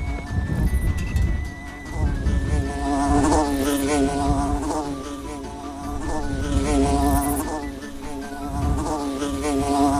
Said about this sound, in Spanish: Ah, la avispa no me deja oír.